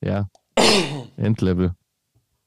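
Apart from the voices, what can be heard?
coughing and throat clearing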